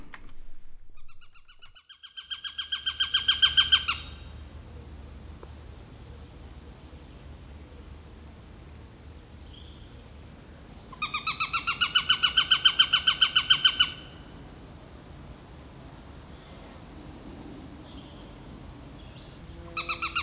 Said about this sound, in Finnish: Viikon luontoääni on varpushaukka.